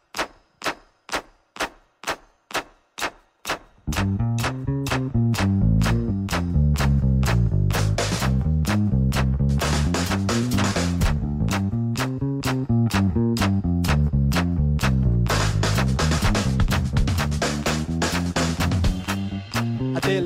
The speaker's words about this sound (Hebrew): עכשיו... אה, נשמע את השיר שגרם לי לדלק עליך.